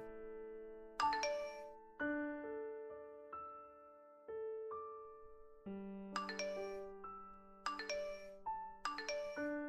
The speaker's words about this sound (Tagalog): Oh, naiwan ni Lester tong phone niya. Parang sunod-sunod ang nagme-message ah.